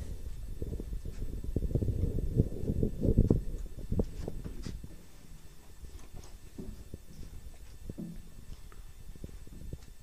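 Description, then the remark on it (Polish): Muffled outdoor ambience recorded through a microphone windscreen on a cold, rainy day, with a low, rumbling wash that swells early then settles, and scattered soft ticks of light rain falling. No one speaks. “I tak, proszę Państwa, wygląda nagranie na dworze. Jest zimno, nie będę robił długo, zresztą nic się nie dzieje. Owiewka jest założona, zresztą nawet jest deszcz.”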